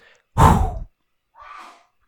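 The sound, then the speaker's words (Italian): A sudden, forceful sneeze from a grandmother with a cold in another room: a short explosive burst, followed about a second later by a softer breathy exhale. No one speaks. “Tra l'altro è mia nonna di là che ha starnutito”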